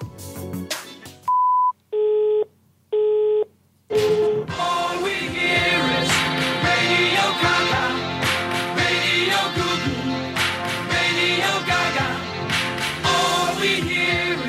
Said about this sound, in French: La personne que vous essayez de joindre n'est pas disponible. Vous pourrez envoyer un message après le bip sonore.